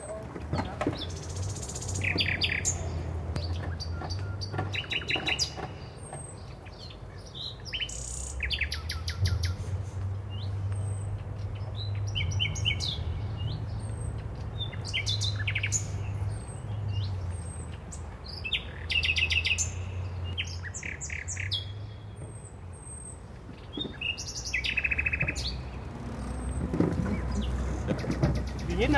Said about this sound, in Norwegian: Og for første gang får jeg høre Nattergal, ikke bare én gang kanskje 40-50 ganger. Midt i Berlin.